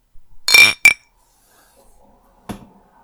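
A toasting clink of a glass against a beer can: two quick, bright, ringing knocks, then a duller tap a couple of seconds later in near silence.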